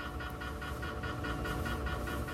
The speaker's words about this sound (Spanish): Eso que se oye es un resonador que se llama Signa Creator, escaneando el cerebro